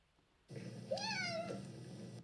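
A single cat meow rises and falls clearly over a steady low hum, lasting about half a second, with no voices present.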